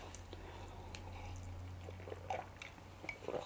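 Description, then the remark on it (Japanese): Someone quietly sips a carbonated drink: a few soft, brief swallowing and liquid sounds near the end, over a steady low hum, with no talking. “ちょっと水飲んでから始めますね。”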